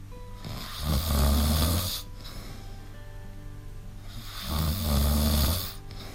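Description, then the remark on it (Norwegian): A person snores while asleep, two long rumbling inhalations with a breathy rasp, separated by a few seconds of quieter breathing, fairly loud with no talking. “Har du ennå ikke stått opp?”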